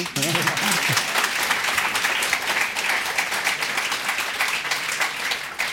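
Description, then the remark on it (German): Steady applause from an audience, a dense wash of many hands clapping at an even level for several seconds, with a brief voice-like sound at the very start. “Applaus!”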